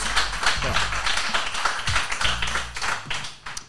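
An audience applauds steadily, many hands clapping in a dense, fairly loud wash that carries through for several seconds and eases off slightly toward the end.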